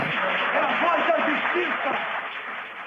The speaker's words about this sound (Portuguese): Tem até um gritinho de já ganhou da plateia.